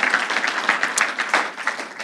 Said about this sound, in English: Why don't you guys give him a, a round of applause?